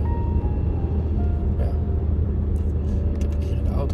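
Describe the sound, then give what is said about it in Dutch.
Steady, deep road rumble of a car driving alongside on the right, wanting to merge in: a continuous low drone of engine and tyres that holds level throughout with no distinct pass-by, plus faint higher hiss near the end. “Even er zit een auto rechts van me die wil invoegen, maar die, die rijdt zo de hele tijd naast me.”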